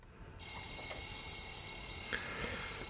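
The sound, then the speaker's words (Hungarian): A telephone rings with a continuous, shrill electronic trill that starts abruptly after a brief silence and carries on steadily and fairly loud to the end, with no voices. “Csörög a telefon.”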